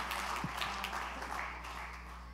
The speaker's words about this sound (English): Give the Lord a hand clap of praise and worship Him as you're being seated this morning.